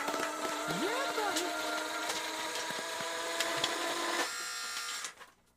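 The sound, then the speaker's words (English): A steady mechanical whirring and fluttering runs for about five seconds, a money gun firing 30 bills per second and emptying an entire 100-bill clip in a continuous stream before cutting off abruptly. “Okay, so we're going to go to the widescreen here and we're going to go ahead and we're going to we're going to make it rain and we're going to empty the entire 100 bill clip.”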